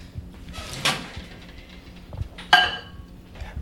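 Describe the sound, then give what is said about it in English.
A microwave door is pulled open with a soft scrape, then shut about two seconds later with a sharp latching clunk that rings briefly. A quieter knock follows. Nobody speaks. “All right, into the microwave.”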